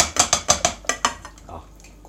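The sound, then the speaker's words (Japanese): Leftover nikujaga (Japanese meat and potato stew) being tipped from a container into a pot: a quick run of about eight sharp clattering knocks, then a few softer dull bumps as it settles. “今、肉じゃがのタップ開けました。鍋にぶち込みます。”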